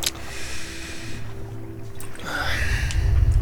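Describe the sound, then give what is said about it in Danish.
A Sanseslammer 3000 drink spills with a sloshing, splashing rush of liquid that grows louder toward the end, over a steady low hum, with no one speaking. “Og nu er jeg spildt den.”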